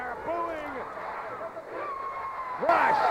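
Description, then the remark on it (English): A wrestling arena crowd boos, with drawn-out falling voices sliding over a steady murmur of noise, and a louder swell of jeers rising near the end. “they are are booing.”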